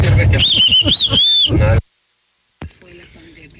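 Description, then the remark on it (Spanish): A loud, shrill human whistle warbles up and down for about a second over a rumbling background, then cuts off abruptly into near silence before faint sounds return. “Festejando aquí el chiflido.”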